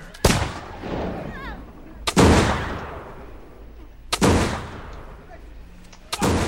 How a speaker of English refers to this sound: Another volley slammed the front line of the Indians, and again four Indians fell